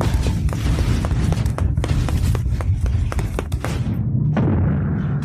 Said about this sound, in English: Damn it! The door slammed. It won't open.